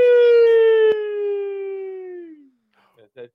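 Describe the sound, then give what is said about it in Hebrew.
A single loud, siren-like wail holds a steady tone for about two seconds, then slides downward and fades, followed by a few faint, brief vocal sounds. “זה קצת אזעקה”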